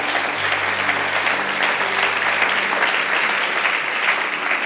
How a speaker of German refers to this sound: Können wir den Herrn mal einen Applaus geben, oder? Ja.